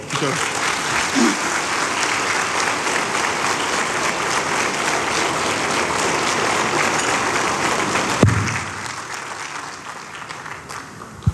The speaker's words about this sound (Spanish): Un aplauso, por favor.